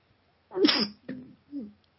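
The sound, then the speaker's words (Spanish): A single sneeze bursts out sharply, followed by a couple of short breathy sniffs and exhalations as it fades, with no talking. “Y eh, eh, perdonar es que estornudo y tengo que parar unos segundos nada más para ver si así escapa.”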